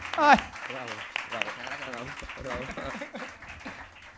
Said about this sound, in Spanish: Un aplauso, ¿no? Público de La Palma es... por una bonita amistad.